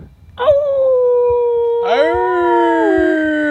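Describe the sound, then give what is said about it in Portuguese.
A person howls like a dog, two long, loud, drawn-out howls, the second swooping up sharply before holding steady and sliding slightly downward. “Late igual cachorro. Morde igual um monstro.”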